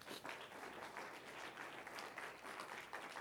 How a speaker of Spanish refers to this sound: No aplauso fuerte, Señor, lo fuerte, Señor.